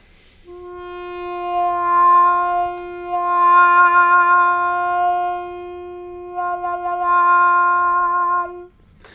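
A trumpet fitted with a mellow wah mute, a straight mute made of wood or cardboard, holds one long, soft, velvety note for several seconds, its tone slowly opening and closing in gentle wah-wah swells, played alone.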